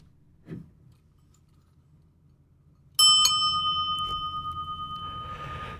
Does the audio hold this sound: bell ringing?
yes